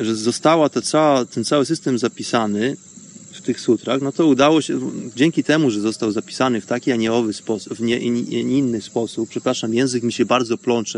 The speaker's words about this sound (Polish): bo tutaj już jest pora wieczorowa, już tutaj słychać chyba e, cykady w moim e, w tle, in a background. Cykady mi tutaj cyka, cykają, bo słońce już tutaj prawie zaszło za górami, za lasami.